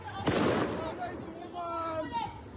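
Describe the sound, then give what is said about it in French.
A firework mortar goes off with one sharp, booming blast near the start, its rumble fading over the following seconds while voices carry on faintly in the street behind it. “Mortier”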